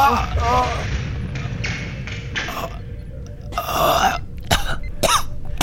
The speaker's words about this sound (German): warum röchelst du denn so? was ist passiert?